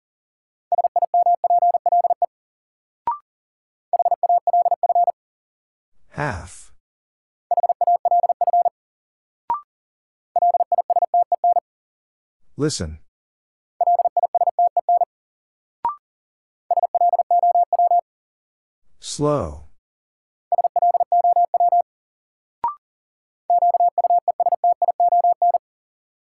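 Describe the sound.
Rapid Morse code at 40 words per minute in a steady mid-high tone, sent in quick bursts of dots and dashes as a new-word drill of common words. A voice speaks a single word between some groups, with faint clicks in the gaps.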